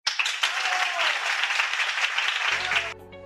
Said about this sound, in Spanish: Es importante reconocer el esfuerzo de nuestros estudiantes de quinto año. Vamos a brindar un fuerte aplauso para ellos.